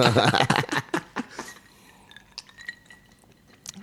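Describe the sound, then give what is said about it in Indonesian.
A brief burst of voices fades, then glasses clink together in a toast: a few light, bright chinks with a short ringing tail, fairly soft. “gue butuh cheers dulu berarti yeah, yeah. cheers dulu”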